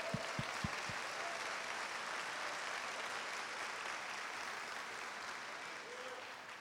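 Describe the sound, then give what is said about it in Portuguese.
An audience applauds the Lord during a sermon, a steady, dense wash of clapping that holds for several seconds, with a few sharp individual claps standing out at the start. “Aplauda ao Senhor.”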